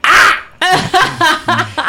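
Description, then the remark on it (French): A harsh, raspy burst followed by four or five short, nasal caws in quick succession, loud, a human voice imitating a crow cawing as a sound effect. “En fait, le coassement est le cri de la grenouille, alors que le croassement est celui du corbeau.”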